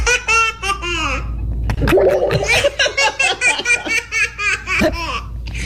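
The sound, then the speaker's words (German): A small child of about one year laughs in bursts of giggles, with a brief wet bubbling, gurgling sound partway through as the child blows air through the straw of a Capri-Sun drink pouch, clear. “Wenn man auch reingeblasen hat in den Strohhalm und dann hat's das ja kurz aufgeblasen und dann kam die Capri-Sonne automatisch”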